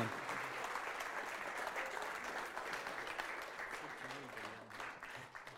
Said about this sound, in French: Est-ce qu'on peut les applaudir, les remercier?